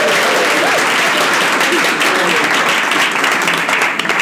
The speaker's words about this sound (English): And uh, it's wonderful to have such a great audience here. Yeah, can we just have a, like a, um, what do you say? Proof. No, applaud from the audience.